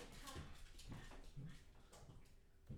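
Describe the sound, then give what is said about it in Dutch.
A dog makes a series of short, soft whimpering noises, about five brief bursts spaced unevenly over a few seconds against a faint background. “hey, hond.”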